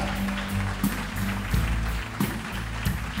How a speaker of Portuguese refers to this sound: Aplauda Jesus com verdade, com força. Aleluia! Aleluia!